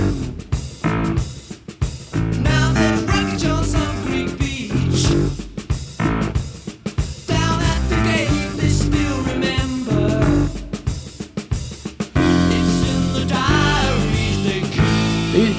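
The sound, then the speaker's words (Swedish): A 1975 rock song plays loudly and steadily, with a sung vocal line over driving drums, bass and guitars, the full band sound continuing throughout with only brief dips between phrases. “Vi backar ett enda år till 1975 och det här är gruppen … med låten ….”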